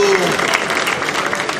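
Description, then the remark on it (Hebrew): Steady applause from an audience fills the whole moment, a dense patter of many hands clapping at once, fairly loud, with no pause in the sound. “כן, כן, אפשר למחוא כפיים.”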